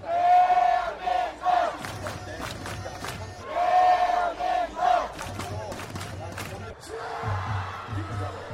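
A large outdoor street-cheering crowd supporting South Korea's national football team at the Brazil World Cup chants rhythmic football cheers in unison, loud, with repeated shouted phrases rising and falling over a steady background roar and a low rhythmic drumming.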